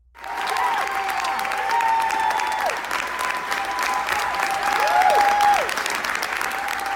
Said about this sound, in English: Wild applause for the death of the unborn.